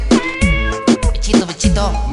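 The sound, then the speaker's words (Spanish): A cat meows repeatedly, several insistent, wavering calls in quick succession, fairly loud over a low background rumble. “Está chido mi gatito.”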